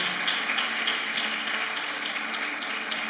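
An audience at an evening church service applauds the Lord Jesus for the life of their pastor, clapping steadily with many hands in a dense, continuous wash of sound at an even loudness throughout, with no voices standing out above it.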